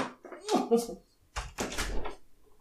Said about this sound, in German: Sag mal, mein Kater, ne? Ich mach mal ganz kurz die Tür auf. Ich weiß nicht, was mit meinem Kater los ist, aber der geht.